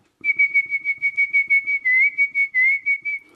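A man whistles a fast dance tune to a crew while sailing out, loud rapid staccato notes hammering mostly on one pitch with a couple of quick slides, faint rustling beneath.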